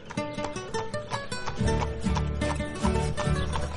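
A horse ridden by a man trots steadily, its hooves clip-clopping in a quick, regular rhythm over a low musical backdrop, moderately loud.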